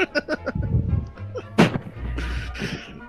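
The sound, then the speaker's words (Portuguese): Heavy metallic clanking from an iron door latch being lifted and pulled aside, a few ringing knocks followed by one sharp, loud bang, then a rough scraping rumble as it settles and the door opens. Forceful, with no voices. “Escuta um barulho de metálico muito forte.”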